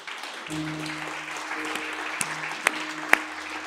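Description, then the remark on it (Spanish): A church audience claps steadily at the end of a service in a dense, continuous wash of applause, with a few sharper individual claps popping out near the end and a low sustained keyboard tone humming underneath. “¿Por qué no juntas sus palmas?”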